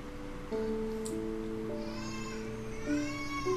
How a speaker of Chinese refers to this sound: 好啦，抱歉哦，因为我的小孩子在午睡哦，所以他哭的声音比较大。你们就当背景音效来听一下好了。